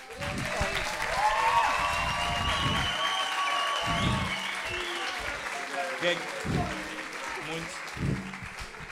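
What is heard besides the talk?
audience applause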